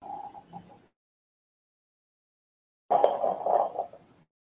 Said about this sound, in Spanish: ¿qué tanto hacías hace rato como raspando cosas en tu escritorio? ¿Raspando? Ah. No sé, se, se oye. Mm. Se estaba preparando las líneas. Encontré un cubo de Rubik.